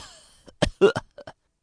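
A voice imitates violent coughing: a burst of several harsh, hacking coughs in quick succession, loud and rough, trailing off into two shorter, weaker coughs.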